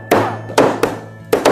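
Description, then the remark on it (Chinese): Five firm, dull knocks of a tool held like a kitchen cleaver, the left hand keeping it from jumping, while making incense, struck at an uneven pace with short pauses between, over a faint steady hum and no talking. “对，没错，来，那我们把它当成菜刀一样拿着，然后左手不要让它跳下去，然后这样开始敲。”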